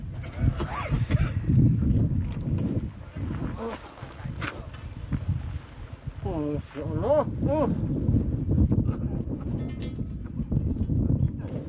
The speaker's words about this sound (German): Immer wieder muss er seinen Job unterbrechen, denn der Wind bläst aus allen Richtungen.